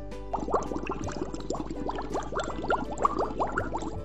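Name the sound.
aquarium water bubbling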